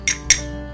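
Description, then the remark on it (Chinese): Two bright metallic clinks from a Tokyo Marathon finisher's metal medal, about a quarter second apart, with shimmering high overtones that ring out and fade into a quiet hum. No one speaks. “这是奖杯的声音。”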